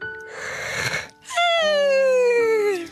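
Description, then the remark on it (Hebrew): A voice imitates a big yawn: a breathy inhale, a short pause, then a long, loud, drawn-out voiced exhale that slowly slides down in pitch and fades at the end. “פיהקה האישה פיהוק גדול.”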